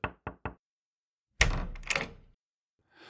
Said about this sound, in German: als jemand an ihrer Tür klopfte.